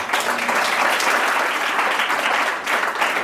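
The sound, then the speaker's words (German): Sustained audience applause, a dense, even wash of many hands clapping loud, holding steady for a few seconds with no voices on top. “Applaus.”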